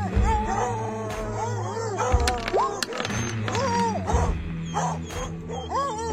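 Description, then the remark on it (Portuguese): A voice imitates a bear, letting out a run of loud, growling roars and snarls with rising and falling pitch, filling the whole stretch with no words. “Vou bater nele então chegou, tipo, baforido, dando aquele urro de urso, sabe?”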